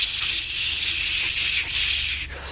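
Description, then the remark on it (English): A voice makes a long, steady "shh" hiss, imitating the sound of rain on the roof during a church service at North Campus, held for a couple of seconds with slight swells in loudness before cutting off. “Last week in North Campus, in the middle of our service, there was the sound. It went shh”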